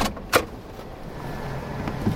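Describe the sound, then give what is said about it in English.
A work truck door clunks sharply, followed by soft shuffling and interior rustling over a low, steady rumble as someone climbs into the truck cab, in the town of Red House. “Kind of a work truck, if you don't mind.”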